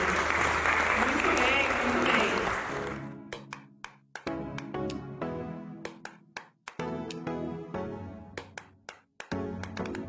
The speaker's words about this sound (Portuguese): Muito obrigada, muito obrigada. Vamos aplaudir.